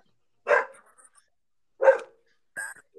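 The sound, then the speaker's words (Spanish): A dog barks three times with uneven gaps between the sharp, clear barks, and quiet stretches in between. “Hasta el perro está por ahí.”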